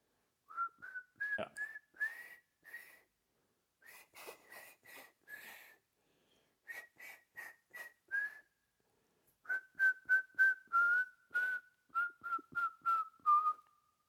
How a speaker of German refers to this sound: Also diese Woche machen wir, jeder muss einmal pfeifen und der andere muss das Lied erraten oder nur einer. Nee, nee, du pfeifst. Ich pfeife.